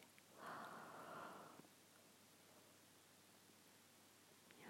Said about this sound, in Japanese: やばいめっちゃ眠くてあくびしちゃいました